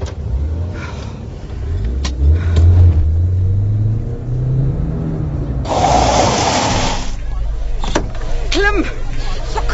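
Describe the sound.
A car engine rumbles and revs up with a rising pitch, followed by a loud burst of rushing noise, while voices talk faintly in the background.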